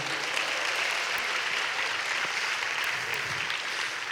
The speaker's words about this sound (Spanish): Si usted lo cree, denle un fuerte aplauso al Señor Jesucristo.